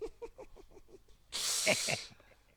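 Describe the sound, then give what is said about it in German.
A loud, steady rush of air hissing out of a balloon lasts under a second, following a short run of rhythmic voiced sounds, then cuts off abruptly. “So, Luftballon.”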